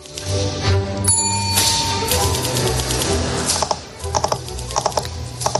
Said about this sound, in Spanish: Esta es otra, la de dar con los dedos en la mesa a ritmo del tambor, como escuchas